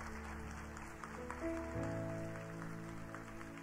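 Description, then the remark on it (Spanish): An audience claps steadily throughout for Jesus, a dense wash of applause over sustained keyboard chords that shift partway through, with no talking. “Vamos, si es para Jesús, dale un mejor aplauso.”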